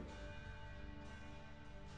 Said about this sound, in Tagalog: Inindot ko yung doorbell